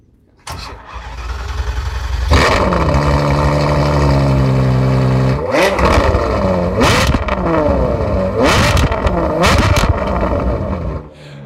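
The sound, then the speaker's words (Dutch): A V12 car engine without turbo starts with a sharp crank and catch, settles into a loud steady idle, then is blipped several times, its pitch swooping up and falling back with each rev. “Want dat is denk ik het effect van een 12-cilinder eh, zonder turbo.”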